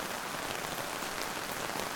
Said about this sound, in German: Mein Mantel ist durchgeweicht, der Schirm kann den Regen kaum noch abhalten, das Wasser flutet meine schicken neuen und sehr teuren Schuhe.